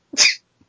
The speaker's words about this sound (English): No, I sneezed.